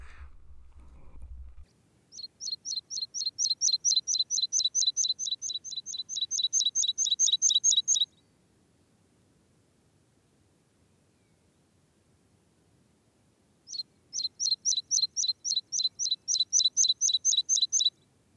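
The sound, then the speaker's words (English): A meadow pipit gives rapid series of thin, high-pitched calls, one long run of many quick notes, a pause, then another run, clear over faint background hiss. “The call is thin and high pitched, siip or it often repeated.”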